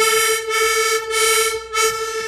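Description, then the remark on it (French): A sustained, reedy accordion chord rich in bright overtones, set to a musician's sound model on a small registration device for creating custom sounds, held steadily with three slight swells in air pressure, fairly loud with no voices. “Et là, ce petit appareil, ça nous permet, nous, avec un système de registration et eh ben, de créer nos sons comme on en a envie.”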